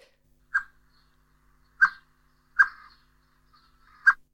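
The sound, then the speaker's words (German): A Eurasian blackbird gives four sharp, clipped warning calls, loud, spaced irregularly over a few seconds with quiet in between and no voices. “hat jetzt verschiedene Warnrufe der Amsel und stellt sie uns vor”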